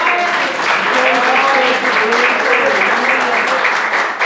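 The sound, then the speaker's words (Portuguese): A crowd applauds steadily for about four seconds, a dense, even wash of clapping with faint voices and cheers blended underneath. “agradeço a oportunidade e as palmas logo Senhor.”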